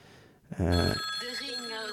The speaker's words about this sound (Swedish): Det ringer direkt in till Ring UP.